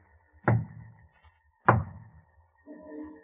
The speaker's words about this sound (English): Holmes, the signal. Yes. Two knocks on the door. Our friend has arrived.